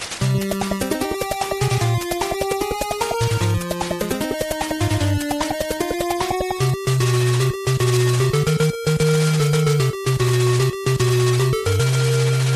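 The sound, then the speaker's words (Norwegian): Bright, buzzy 8-bit chiptune music from the very start of Konami's video game Rush'n Attack, with a bouncing bass line and stepping square-wave melody, loud and steady for the whole stretch, with brief cutouts near the end and no voices. “For å sette oss i stemningen, så skal vi ta oss og høre litt av musikken til Russian Attack, som er ukens spill.”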